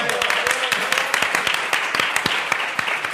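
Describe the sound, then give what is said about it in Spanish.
A burst of audience applause at a live show, called for to celebrate six years on air, many hands clapping at once in a dense, crackling wash with sharper individual claps standing out, steady and fairly loud throughout. “Un aplauso para nosotros, llevamos seis años, por favor”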